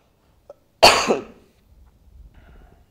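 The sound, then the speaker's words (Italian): A single loud, harsh cough, preceded by a faint click and followed by a quiet rustle of low background noise. “Viene pure la tosse.”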